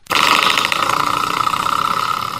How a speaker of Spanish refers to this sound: Ese sonidito es el resorte que va en la puerta y abajo para detenerla.